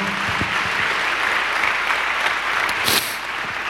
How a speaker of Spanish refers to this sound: ¿Cuántos dicen amén, amado hermano? Denle un aplauso a Dios si usted está entendiendo esto.